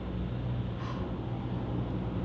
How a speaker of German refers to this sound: Ey, Verkehr.